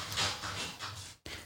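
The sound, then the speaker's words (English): Dogs scratch at a door in quick, rasping bursts of claws on wood, steady, with a brief break before the scratching resumes. “Lord, you can hear the dogs right now freaking scratching at the thing.”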